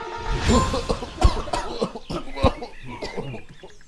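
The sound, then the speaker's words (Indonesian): A rapid flurry of coughing from three characters at once, caused by flying dust: harsh, overlapping bursts that crowd together, with a few sharper, louder hacks standing out over nearly four seconds. “Otomatis Debu yang berterbangan itu membuat tiga sekawan terbatuk-batuk.”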